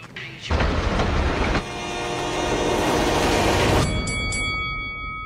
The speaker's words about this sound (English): Every day, people tempt fate and die trespassing on railroad tracks. See tracks, think train.